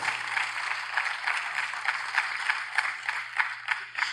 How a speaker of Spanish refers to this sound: Un aplauso para ellos. Eso.